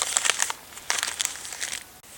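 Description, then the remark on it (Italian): Wrapping paper crumpling and crinkling as a Christmas gift is torn open and shown to a camera, in two bursts of busy rustling separated by a short pause, fairly soft overall with no voices. “insieme la carta, farlo vedere alla telecamera.”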